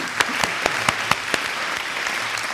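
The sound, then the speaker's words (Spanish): An audience applauds for Héctor, a drummer, in a steady, dense patter of clapping, with a few sharper individual claps standing out at regular intervals, holding an even, moderate loudness throughout. “un aplauso para Héctor.”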